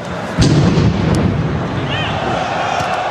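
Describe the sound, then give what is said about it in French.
A single deep, muffled boom from an explosive belt set off by a suicide bomber outside a stadium during a football match thuds through the steady roar of the large crowd, which carries on without a break afterward. “Alors que l'attaquant français Anthony Martial a le ballon, une détonation se fait entendre aux abords du stade.”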